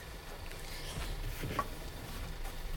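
A dog laps up beer with quick, wet slurping sounds that run steadily for a few seconds, quiet, with no one talking.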